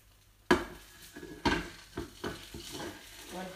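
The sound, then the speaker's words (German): Water sizzles and hisses in a hot pan on a stove hotplate, sending up a lot of steam: a steady crackle broken by several sharp bursts of spitting and a few light clanks of cookware, with no talking. “Das ist das Wasser, das verdammt. Oh, krass. Was für ein krasses Phänomen. Oh mein Gott, wie viel Dampf kommt da wieder raus.”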